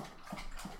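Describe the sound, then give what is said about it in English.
A dog laps up water in a quick, steady rhythm of soft wet slurps, fairly quiet, with no one talking. “I apologize if you can hear my dog drinking water behind me.”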